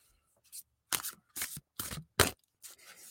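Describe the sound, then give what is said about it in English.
A deck of music Oracle cards being shuffled, in a series of about five quick, crisp riffling bursts separated by short pauses, with no talking. “So just doing a quick little shuffle here.”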